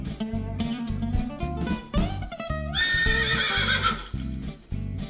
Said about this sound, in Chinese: 突然间，马儿咀嚼停止了咀嚼口中的青草，竖起耳朵，仰起头来就开始乱叫，并且飞奔而去。